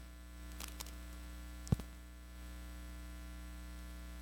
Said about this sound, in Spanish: ¿Me pueden ayudar con este micrófono, porfa? Gracias. Tengo mucha interferencia, no sé qué está pasando.